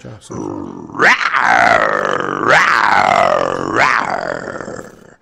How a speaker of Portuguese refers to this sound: É, parou o leão, peraí.